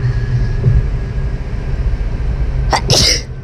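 human body sound, sneeze

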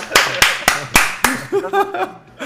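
crowd, applause

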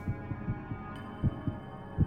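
sound effect, heartbeat sound effect

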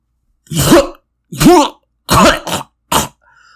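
human body sound, harsh coughing

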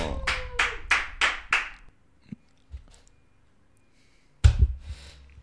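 crowd, clapping

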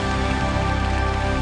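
crowd, audience applauding

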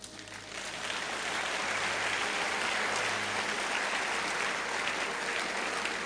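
crowd, audience clapping

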